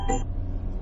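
A brief electronic phone alarm tone chirps at the very start, then cuts off, leaving a steady low engine rumble like the inside of a moving car.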